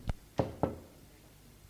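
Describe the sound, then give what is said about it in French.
Three sharp knocks on a door in quick succession, followed by a brief pause and a fourth knock at the end, made by two men who have climbed the stairs to the door. No voices. “Ils montèrent les escaliers frappèrent à la porte.”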